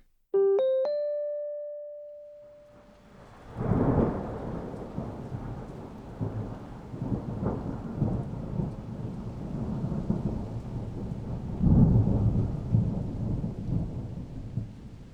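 A short ringing chime opens, then steady rain sets in with a heavy thunderstorm; deep rolling thunder swells loudly twice over the constant downpour. No one speaks.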